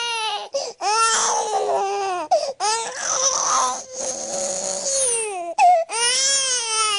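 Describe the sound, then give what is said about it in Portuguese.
A crying-baby sound effect: a baby wails loudly and continuously in long, strained cries broken by brief gasps for breath, upset, with no other sounds around it. “Toca o bebê chorão.”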